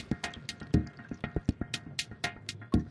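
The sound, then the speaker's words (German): Quick bursts of water are sprayed onto a jacket's fabric again and again, a rapid, uneven series of short hissing squirts with soft wet patters, moderately quiet, with no talking. “gewaschen, geschleudert, getrocknet und immer wieder mit Wasser besprüht.”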